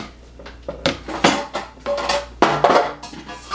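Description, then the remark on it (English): Clatter of a small kitchen egg cooker for soft-boiled and hard-boiled eggs being handled, with a series of irregular clunks, taps and rattling knocks of plastic and metal parts, no talking. “This is my go-to uh, soft-boiled, hard-boiled egg cooker.”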